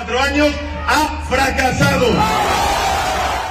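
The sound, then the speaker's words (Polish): A large crowd at the Socialist party headquarters in Spain, answering leader Pedro Sánchez, chants the anti-fascist slogan 'they shall not pass' in loud, rhythmic bursts of many voices shouting together, then the chant dissolves into a sustained roar of cheering. “nie przejdą, e, tak e, odpowiedział mm, takim właśnie antyfaszystowskim zawołaniem tłum.”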